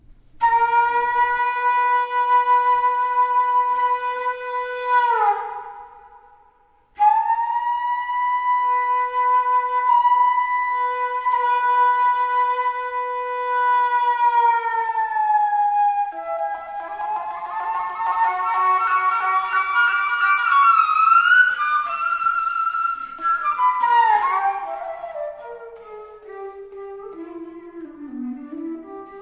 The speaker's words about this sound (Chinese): 我们现在来听听 Robert Dick 的代表作品《Sliding Life Blues》，这首就是用滑音吹头所演奏的。